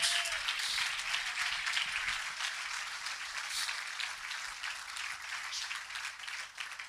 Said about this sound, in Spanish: Dele ese aplauso al Señor Jesús.